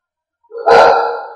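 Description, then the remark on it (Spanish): A single loud dog bark at someone, a sharp tonal woof with a brief trailing ring, standing alone with no talking. “Perdón, le está ladrando a alguien.”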